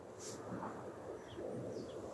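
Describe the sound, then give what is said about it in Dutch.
A few faint bird chirps come through sporadically over a quiet, steady outdoor hush with a light rumble of wind on a frosty morning, and no one speaks. “En de stilte en de vogels die ik hoor.”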